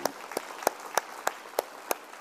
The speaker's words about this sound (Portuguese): Aplauda o Senhor Jesus.